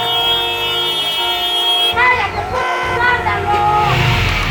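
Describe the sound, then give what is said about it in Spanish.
Busy street traffic in Mexico City hums steadily while a car horn blares in a long held tone, then other sounds and voices mix in over the continuous rumble of engines. “El antiguo DF y sus regiones aledañas tienen el más intenso tráfico exploratorio del planeta.”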